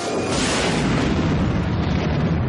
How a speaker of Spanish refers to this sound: Corta el frontal de la motojet imperial que gira descontrolada y se estrella.